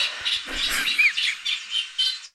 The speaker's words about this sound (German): Toll. Wunderschön. Das ist der Teichrohrsänger.